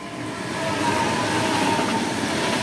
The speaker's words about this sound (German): Ich glaube, unser Zug kommt. Yeah, right, yeah, right. Unser Zug kommt jetzt.